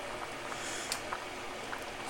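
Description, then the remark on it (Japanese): Water bubbling at a steady boil in a small pot cooking a single serving of five-minute pasta, a soft continuous hiss broken by occasional tiny pops and blips, fairly quiet, with no voices. “それを今ね5分のやつを湯がいてますねいいんだ1人分だから1 人分だからちょっとちっちゃめの鍋でやるしね”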